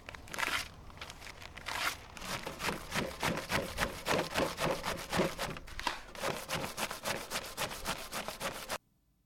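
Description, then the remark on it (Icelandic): A file rasps against a Quran in Gothenburg in quick, rhythmic back-and-forth strokes, fairly loud, going steadily for several seconds before stopping abruptly. “þá veit að hlustendur út af sög hvernig það heyrist er að vera að raspa kóranum”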